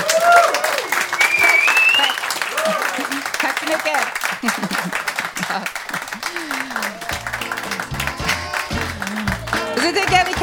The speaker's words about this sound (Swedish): ge en liten extra applåd här för dagens födelsebarn med ett fyrfaldigt hurra.